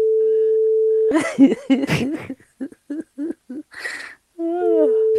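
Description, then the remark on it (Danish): A steady, single-pitched telephone ringing tone hums as a call goes out during a Radio 4 broadcast, then people burst into rhythmic laughter before the tone returns briefly at the end. “Nu ringer vi op.”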